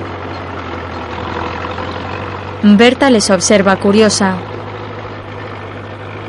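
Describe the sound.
A tractor engine rumbles with a low, steady drone throughout as the tractor drives away carrying two people, holding an even level, while a voice speaks briefly over it partway through.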